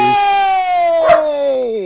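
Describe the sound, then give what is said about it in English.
A dog, scared by fireworks that have started during Diwali, vocalizes loudly: a long, drawn-out, slowly falling howl-like cry lasting nearly two seconds, broken midway by one short, sharp bark. “There's a that. dog. There he”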